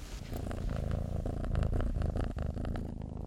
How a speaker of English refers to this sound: I'm going to just interrupt this episode to share the loudest cat purr known to man. Hang on.